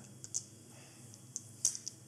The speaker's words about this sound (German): Ich würfel schon mal.